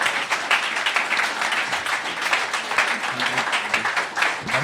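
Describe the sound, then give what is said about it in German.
An audience applauds steadily for several seconds, a dense, even wash of many hands clapping at a fairly loud level, with a few faint voices mixed in underneath. “Vielen Dank. Applaus.”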